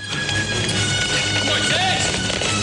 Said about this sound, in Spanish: Ramsés monta en su carro de guerra y le da alcance.